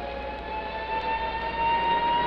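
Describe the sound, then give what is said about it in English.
An air raid siren holds a steady, sustained wail over a constant wash of street traffic, including red double-decker buses, by Lord Nelson's column, moderately loud and unbroken throughout, with no voices. “I'll just let you listen to the traffic and the sound of the siren for a moment.”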